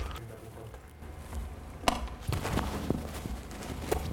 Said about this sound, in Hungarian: most iszok egy korty vizet.